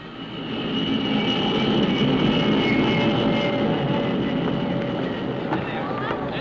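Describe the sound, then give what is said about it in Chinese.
A steady, loud roar of an airplane in flight, a broad rumbling drone that holds evenly throughout, with faint voices murmuring underneath. “过一小时有架飞机飞往里约热内卢，我们走。”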